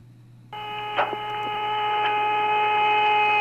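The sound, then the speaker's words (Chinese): An eerie whistling radio recording: after a brief low hum, a steady, layered whistling tone sets in and holds unbroken, with a short crackle early on and faint static beneath. “这种声音听起来像是外星音乐，也有点像是吹口哨。”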